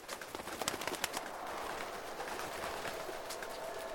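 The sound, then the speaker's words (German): A flock of starlings chatters continuously, a dense wash of clicks, whistles and squeaky calls with sharp bursts at the start, steady, with no voices. “Stare. Hallo, na? Wo kommt ihr auf einmal her? Ihr seid doch gar keine Waldvögel.”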